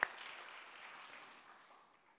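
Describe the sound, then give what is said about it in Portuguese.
A church audience breaks into applause for Jesus, a dense wash of many clapping hands that starts sharply and gradually fades over about two seconds. “Vamos dar uma salva de palmas a Jesus.”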